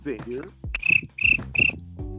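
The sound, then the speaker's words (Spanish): A person imitates a cricket with three sharp, high-pitched chirps in steady rhythm, each about a third of a second long, with a brief bit of voice before them. “puede sonar como un grillo, si está tranquila en la noche, puede sonar como un grillo, mira.”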